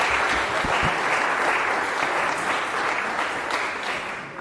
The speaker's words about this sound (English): Let's give a huge round of applause